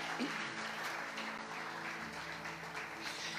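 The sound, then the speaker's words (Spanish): A crowd applauds the volunteers steadily, a dense wash of many hands clapping at once that holds at a fairly even level throughout without tapering off. “Les podemos dar un aplauso a los voluntarios.”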